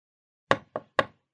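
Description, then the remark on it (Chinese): Three sharp knocks on a hotel room door, the second slightly softer, in a quick uneven rhythm, each a short hollow thud with a brief decay, followed by silence. “有人敲门，他赶紧把短裙与衣衫穿上”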